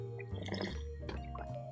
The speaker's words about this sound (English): Let me get a swig of this water real quick.